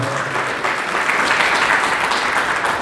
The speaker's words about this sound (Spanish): Dale un aplauso al Señor esta mañana, por favor.